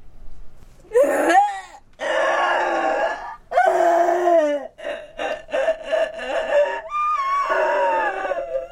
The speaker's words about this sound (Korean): 그날 밤 목사댁의 울음소리는 더 크고 처절했다.